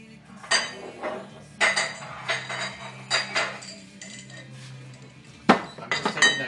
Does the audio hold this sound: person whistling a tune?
no